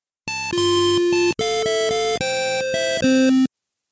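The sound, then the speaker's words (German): A short, bright video game fanfare jingle of a few stepped synth chords, announcing a dog that appears when the player stands idle, played loudly and cleanly on its own, lasting about three seconds. “Das Spiel ist ja soundtechnisch total dürftig, aber dieser Hund hat so eine kleine Fanfare, die ihn ankündigt.”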